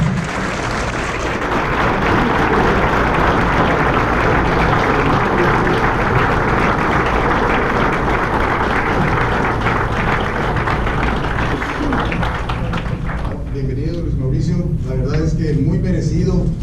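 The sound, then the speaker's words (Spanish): Sustained audience applause at an awards ceremony for the winner of the public accountant of the year award, a dense, steady wash of clapping for about thirteen seconds, then tapering off as a voice begins speaking. “Un aplauso, por favor.”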